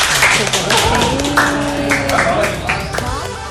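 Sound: applause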